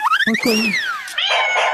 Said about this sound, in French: ah, c'est le chat. Le miaou